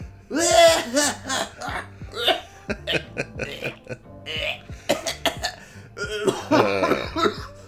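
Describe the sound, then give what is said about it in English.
A voice imitates dry heaving and coughing, with a rapid, uneven string of harsh retching grunts and cough-like bursts that go on without pause for several seconds. “I end up running to the bathroom, dry heaving, and coughing for like probably 15 to 20 minutes.”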